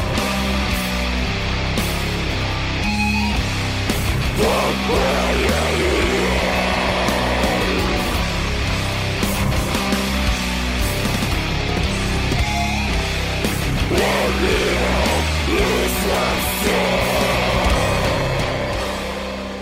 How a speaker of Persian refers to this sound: وقتی ریف شروع میشه دقت بکنید به اون صدای جیغمانند گیتار الکتریک که ما نوازنده ها بهش میگیم پینچ هارمونیک ببینید چه قشنگ فضا سازی میکنه وسط ریف نوازی